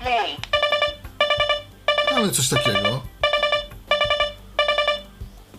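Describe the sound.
A talking clock's alarm sounds as a series of bright electronic beeping bursts, repeating at a steady rhythm, fairly loud, with a man briefly speaking over it early on.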